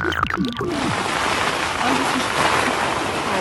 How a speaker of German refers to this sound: nur halt jetzt kommt noch der Regen einsetzt dazu.